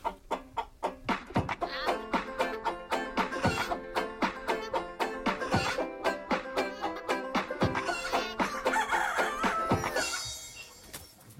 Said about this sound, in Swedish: Vi, ska, vi kör väl en liten höna. Ja, höna blir bra.